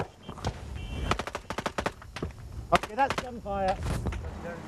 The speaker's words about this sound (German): Bereits am Morgen fuhr ein amerikanisches Fernsehteam nach Tikrit. An einem Kontrollpunkt nahe des Stadtzentrums fallen plötzlich Schüsse.